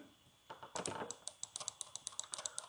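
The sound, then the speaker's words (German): A rapid series of sharp, fairly crisp clicks from a computer keyboard or mouse as people click in a computer game, coming in an uneven rhythm after a brief rustle at the start. “Okay, ihr hört uns wahrscheinlich jetzt gerade klicken.”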